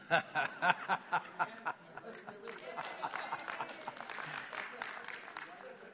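A few sharp, evenly spaced claps ring out, then a wider burst of audience clapping and laughter spreads through the room, sustained and moderately loud.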